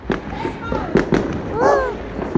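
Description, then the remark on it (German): Firework rockets going off outdoors: several sharp pops and bangs in quick, irregular succession, with people's voices and excited exclamations mixed in between the blasts; green explosions. “Nächste Rakete!”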